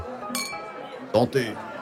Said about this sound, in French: Et la soirée continue, les deux trinquent.